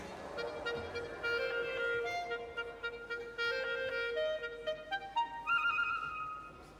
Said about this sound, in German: Und dann wird auch noch eine Opernsängerin nachgeäfft, die eine Rossini-Arie trällert. Ungefähr ich war früher mal Opernsängerin. Also, jetzt hört man mal an, wie das von der Klarinette klingt.